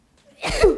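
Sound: sneeze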